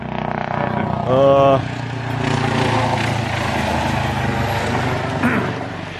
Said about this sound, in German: Hubschrauber. Jetzt kommt ja der Hubschrauber.